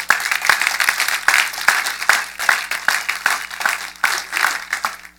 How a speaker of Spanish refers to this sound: Un aplauso al Señor.